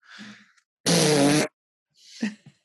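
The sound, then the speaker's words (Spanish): A loud, buzzing fart noise blasts for about half a second, framed by softer breathy, hissing sounds just before and after it. “E, este es una competencia y se trata de ¿qué, nacionalidad se tira el pedo más, más fuerte, más doloroso?”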